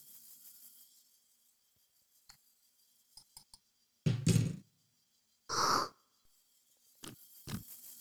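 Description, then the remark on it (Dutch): Someone noisily slurps a drink twice while tasting, each slurp a loud, airy burst with a wet, whistling edge, followed by soft lip smacks. Faint ticks come before; nobody speaks. “Bekende slurpje. Ja, daar is hij weer.”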